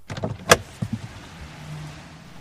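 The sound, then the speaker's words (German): A car door is opened with a sharp metallic click and clunk, followed by a few softer knocks and a low mechanical hum fading out, with street ambience, on a busy street after a match. “Tür auf”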